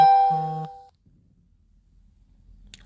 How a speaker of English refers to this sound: Sorry about that uh, notification.